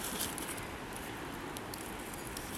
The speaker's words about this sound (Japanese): とにかく川の音がね多分ザーッと聞こえてくるんじゃないかなと思うんですけどここは本当にこういう瀬音がいつも聞こえる場所で